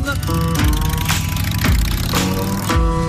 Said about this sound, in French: Vous avez entendu des motos déjà dans, dans la musique générique de Sur la route 53